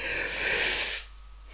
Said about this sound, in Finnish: Ai ai, voi vitsi tätä mun haukottelua nyt.